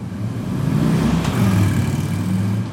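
A motorcycle engine rumbles loudly, its low drone holding steady with slight shifts in pitch as it revs, with no voices; the motorcycle is being ridden by a rider without a helmet.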